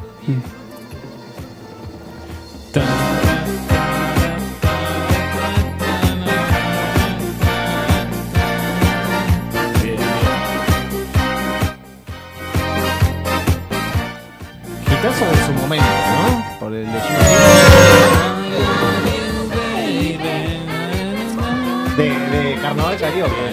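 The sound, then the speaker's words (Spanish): A song's chorus bursts in loudly after a brief, quieter opening, a full band driving a steady beat with dense layered instruments and vocals, building to an even louder swell near the end. “déjalo que llegue el estribillo. Ahí vas a tener. La explosión.”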